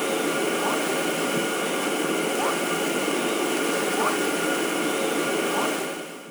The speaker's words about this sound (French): Des phoques de Vedel.